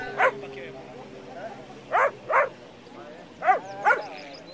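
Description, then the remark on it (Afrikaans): A small, trembling dog gives five short, high yelping whimpers, spaced out with a couple coming in quick pairs, fairly clear against a quiet background. “Die hondjie bewe en chunk en kyk met groot hartseer oë na Dani.”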